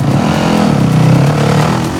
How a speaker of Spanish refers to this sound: enfadada y angustiada, da un golpe a la moto. Después, se baja la visera y emprende de nuevo la marcha.